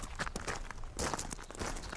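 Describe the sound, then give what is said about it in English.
Footsteps of two people crunch and scuff over loose, damp rocky ground in a steady walking rhythm as they walk into a dark cave, with gritty scraping between steps and no voices. “I clapped a friendly hand to her back and we walked into God's mouth.”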